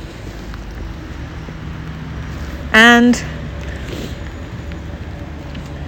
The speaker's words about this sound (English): the rain is splatty rain, which we have discussed before. There's a type of rain in our rain index.